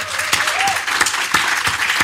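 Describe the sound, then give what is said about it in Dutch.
An audience applauds steadily, a dense wash of clapping with a few sharper claps standing out, sustained and fairly loud throughout with no one speaking over it. “Oké, maar mag ik eerst een applaus”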